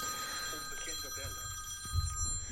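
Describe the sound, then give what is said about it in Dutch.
A telephone rings with steady, high electronic tones that carry unbroken through the whole moment, fairly loud, while people talk underneath with a brief low bump near the end. “Telefoon aan laten staan.”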